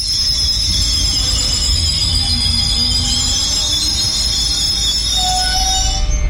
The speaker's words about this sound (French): C'était donc pas un rêve, c'est vrai ce qu'on dit. Le TER du jour de grève, il est là. Et là, par exemple, je suis pas du tout surprise de trouver le train puisque c'était annoncé sur l'appli SNCF. Les choses sont bien faites, même un jour de grève.